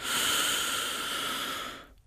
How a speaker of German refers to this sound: Jetzt atmen wir einmal ganz tief aus, drücken richtig die Luft aus und atmen ganz tief ein.